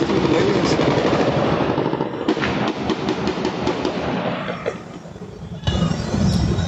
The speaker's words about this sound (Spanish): Mire, para usted que nos escucha en radio, esta balacera que usted escucha o que usted ve a través de estas imágenes fue parte de los enfrentamientos que se registraron desde la madrugada este martes en la capital de Colima